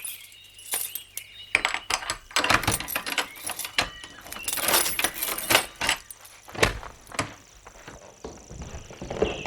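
keys jangling

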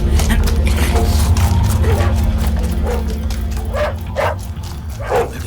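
dogs barking

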